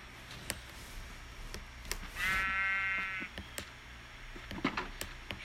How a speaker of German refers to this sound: Ich schere noch mal kurz das Schaf.